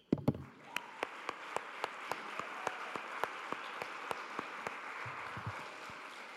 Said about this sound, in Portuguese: Vamos aplaudir as mães aí?